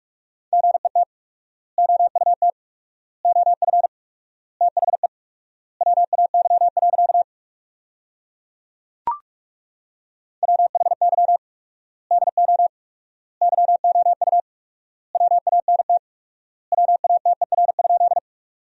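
Fast Morse code at 45 words per minute with 4x word spacing, sending sentences built from the top 200 words: a steady mid-pitched tone keyed in rapid dots and dashes, grouped into words with long pauses between them, plus one sharp click midway.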